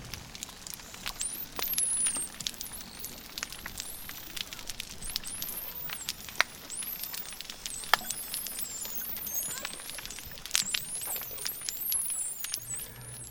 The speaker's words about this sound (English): But when you listen to 90 dolphins echolocating in confusion, and then suddenly there's nothing left except the sound of snapping shrimp, it's a powerful message.